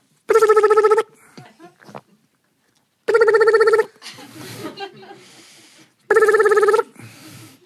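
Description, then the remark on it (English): A voice mimics a metal rotary telephone dial with clicking, whirring noises, broken up by three loud, buzzy ring-like tones that come at a steady pace, each about a second long. “know, it was a metal dial and all the, you know, it was all shiny around where the holes are. You stick your finger in.”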